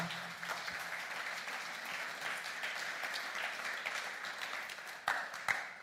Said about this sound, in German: Komm, lasst uns mal der Band richtigen Applaus geben.